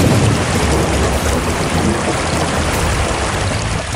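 A dense, steady roar of heavy rain with hail pours down without a break in Tlalnepantla, State of Mexico, with a deep rumbling undertone like thunder. The sound is loud, and no voices are heard.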